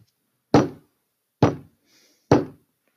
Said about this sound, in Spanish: Justo en eso llegó el lobo y volvió a tocar la puerta.